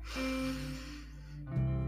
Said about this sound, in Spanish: Solamente dedícate a concentrarte en cómo ingresa el aire a tu cuerpo, cómo suena el aire al entrar por tu nariz parecido a las olas del mar, en una inhalación